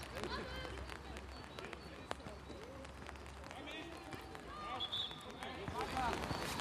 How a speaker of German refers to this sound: Wenn ihr das so ein bisschen tropfeln hört, dann ist das hier, weil es regnet und ich den Regenschirm auf habe.